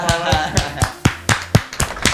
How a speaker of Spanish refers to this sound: Aplausos.